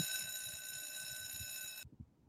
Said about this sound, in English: See, I do have a bell.